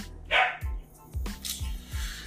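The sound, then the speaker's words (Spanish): A dog barks sharply a couple of times, the bursts short and loud, while dull low thumps repeat steadily in the background. “¡Perro!”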